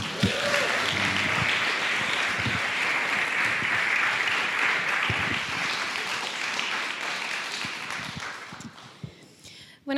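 A crowd bursts into sustained applause, a dense wash of many hands clapping at steady loudness for several seconds before tapering off near the end, with a few faint voices mixed in.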